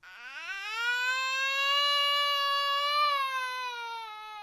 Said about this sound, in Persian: پسرم را بغل کردم تهمانده بستنی را هم از دستش گرفتم و انداختم دور پسرم جیغ کشید